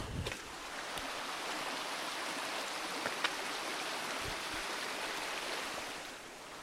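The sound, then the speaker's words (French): A river's steady rushing flow carries on for the whole stretch, a broad continuous wash of water heard from some distance away, with no one talking over it. “Écoutez la rivière.”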